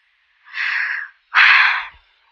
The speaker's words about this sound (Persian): دوباره انگوشش یه جیغ میکشه و این بار در باز میشه انگار این در هیچ وقت مفهوم باز شدن رو درک نکرده